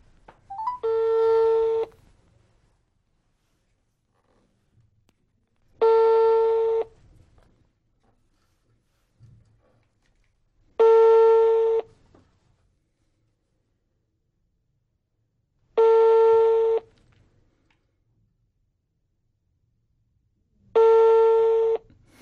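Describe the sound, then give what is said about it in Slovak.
An outgoing phone call to Peter Kažimír rings unanswered: five steady ringback tones, each about two seconds long, repeat at even intervals with quiet gaps between them and no voices. “Teraz skúšame telefonovať Petrovi Kažimírovi.”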